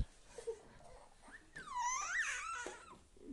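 A young child cries and yawns: a soft whimpering cry rises into a long, wavering, high-pitched whine that bends up and down, like a yawn drawn out into a squeal, then trails off into breathy quiet.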